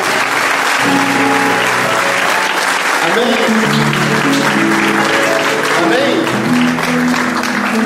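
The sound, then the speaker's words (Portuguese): An audience at a church service applauds steadily for several seconds, giving a round of applause to God, a dense wash of many hands clapping, while voices call out and sing-like tones rise and fall beneath it. “Vamos dar uma salva de palmas a Deus.”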